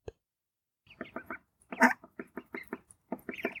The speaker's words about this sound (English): And you can hear them as they round the bow of our boat. Mum first. A scatter of chicks, chinking and cheeping like fluffy yellow bats. The mother responding with chucking quacks and a strange guttural clap sound.